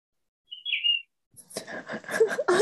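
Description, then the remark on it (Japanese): A short, clear bird chirp rings out on its own, then after a brief pause a busier burst of chirps and trills follows, moderately loud; it is a phone notification tone set to bird chirping. “通知音を鳥のさえずりにしてみた”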